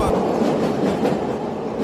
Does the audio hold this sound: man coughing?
no